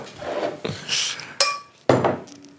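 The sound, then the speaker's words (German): Glasses clink: three sharp, ringing knocks spaced about half a second apart, with a soft hissy, splashy noise in between as a small amount of drink is poured into very large glasses. No one speaks. “Immer so schwierig, in so riesige Gläser so wenig einzuschenken.”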